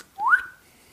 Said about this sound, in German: mir fällt das Wort nicht ein, darum pfeife ich jetzt einfach so dreckig ins Mikrofon.